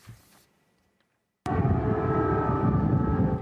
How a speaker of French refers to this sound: Cette nuit encore à Kiev, les sirènes anti-bombardement ont retenti à plusieurs reprises.